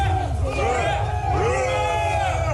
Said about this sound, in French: des militaires professionnels qui, comme le 20h de TF1 nous les a montrés hier soir, poussent des cris rauques et arrachent le drapeau ukrainien lorsqu'ils parviennent à faire main basse sur une ville ennemie. Ces combattants célèbrent leur victoire.